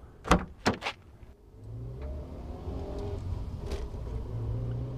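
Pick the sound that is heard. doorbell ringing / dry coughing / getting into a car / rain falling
getting into a car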